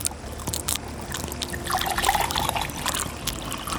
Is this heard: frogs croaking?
no